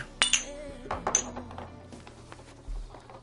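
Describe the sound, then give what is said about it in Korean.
Glasses clink together in a toast, a couple of bright ringing chinks, followed by faint table clatter and low background murmur. “자 건배하고 앞으로 친하게 지내자고.”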